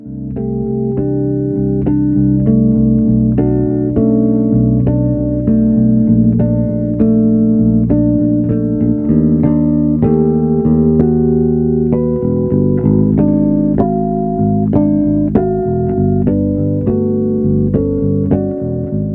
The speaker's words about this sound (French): Alors, et euh, eh ben ouais, ça me sort vachement de ma zone de confort. Déjà, j'ai rarement entendu de la basse jouer seule.